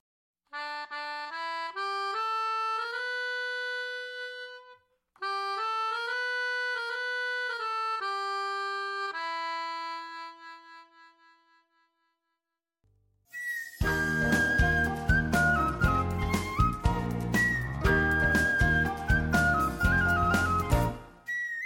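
Instrumental love song music: a bright, clean melody of sustained electronic whistle-like tones plays alone in two phrases, pauses briefly, then a full, dense band arrangement with steady beat takes over loudly.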